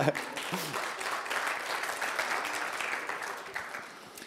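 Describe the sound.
A crowd applauds steadily for a few seconds, a dense wash of many hands clapping at moderate volume that tapers slightly toward the end, with a brief voice at the start.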